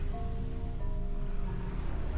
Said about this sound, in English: You see, like, the waves, like, crash up against, like, her left side, and she doesn't even flinch. Like, she's a boulder in the, in the shore unmoving.